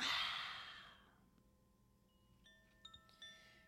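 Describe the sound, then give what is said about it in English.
A long, deep breathy exhale, the last of three deep breaths ending a breathing practice, fading out over about a second, followed by quiet sustained chime-like tones with a few soft plucked notes. “Again, long inhale. Exhale. Your final biggest breath, biggest exhale.”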